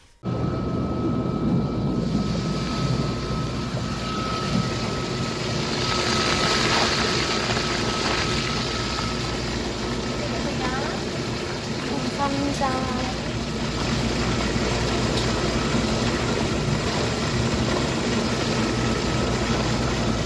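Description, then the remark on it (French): An aquabed, a massaging and relaxing water bed, runs steadily for twenty seconds, a loud, continuous rushing drone of churning water with a low motor hum beneath and a few faint chirping squeaks midway. “C'est quoi ça, ce bruit d'eau”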